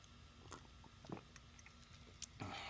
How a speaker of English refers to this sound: Let me uh, take a little sip of my coffee.